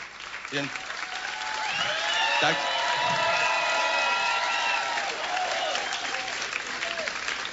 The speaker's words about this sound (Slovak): Tak ako im patrí potlesk aj vám všetkým, ktorí stojíte za nimi a rovnako tým, ktorí sú dnes nad hlavami všetkých, našim hudobníkom